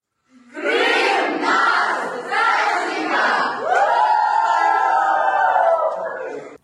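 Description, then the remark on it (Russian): A crowd of children shouts the slogan "Krym nash" (Crimea is ours) together and laughs, in loud, sustained bursts, several rising and falling group cries running for about six seconds with cheerful energy, recorded on video. “Вот так вот э, дети кричат «Крым наш», смеются, на видео все это записывается”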